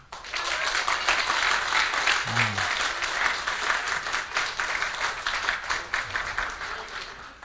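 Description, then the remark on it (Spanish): An audience at a church service applauds Christ steadily, dense clapping filling the space for several seconds at a loud, even level, with a brief murmur from a voice partway through. “Y una, a ver, denle un aplauso a Cristo.”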